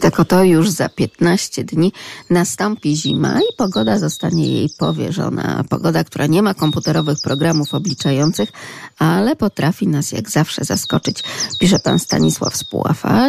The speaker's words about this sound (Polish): Zimą no to już takie oto odgłosy i takie oto dźwięki sikorek, tego e, sikorkowego śpiewu będziemy mogli wsłuchiwać się wtedy, kiedy zadbamy oczywiście na przykład o dokarmianie